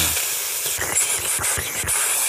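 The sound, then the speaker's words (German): A voice imitates a man's urine stream splashing onto a laminate hallway floor: a steady, loud, breathy hiss that runs unbroken for a couple of seconds, with a few soft low thumps beneath it. “So richtiger Pissestrahl auf Laminat.”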